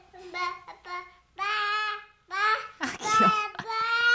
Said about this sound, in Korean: 팀장님은 늦둥이로 아들을 낳으셔서 두 살배기 막둥이가 집에 있었는데요. 팀장님이 초인종을 누르고 들어갔더니 이 막둥이가 옹알이를 하면서 기어 나오더라고요.